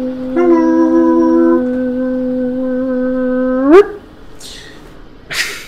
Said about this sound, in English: I heard Sandy's bark fade away in the distance and then stop altogether.